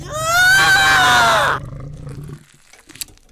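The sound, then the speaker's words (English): A monster attacking a man: a loud creature growl swells into a harsh, snarling roar for about a second and a half, then drops to low rumbling and rough scuffling noises of slashing and tearing, with a sharp snap near the end. “The sounds of the growls, slashing, gargling, tearing.”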